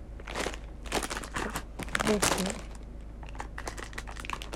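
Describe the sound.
Plastic pieces of a Lego flower set clatter and crinkle in uneven bursts of small clicks and rustles as it is assembled, while someone murmurs a few words over them.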